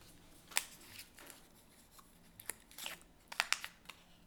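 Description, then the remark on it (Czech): A small paper card is handled and flipped over, giving a few short, crisp papery snaps and light rustles, scattered irregularly over a few seconds with no talking. “a já bych zase poprosil otočit, otočit jo? kartičku jo?”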